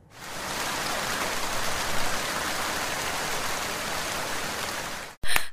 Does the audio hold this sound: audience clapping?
no